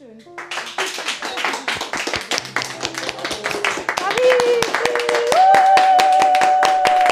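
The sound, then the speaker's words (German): A crowd gives closing applause, clapping steadily with dense, rapid claps that swell in volume, and a sustained whistle-like tone rises over it toward the end. “Und ich könnte noch lange in dieser Marmeladenglaswelt verbringen, doch für heute hört ihr jetzt noch den Schlussapplaus.”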